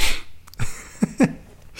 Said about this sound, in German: Man, man atmet einmal feste durch die Nase aus.